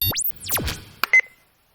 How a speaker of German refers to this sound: Ich muss den Knopf ein bisschen härter drücken, weil der Wecker ist schon an die 8 Jahre alt und läuft immer noch mit derselben Batterie. Ist auch schon 8 Jahre alt. Ein Funkwecker ist das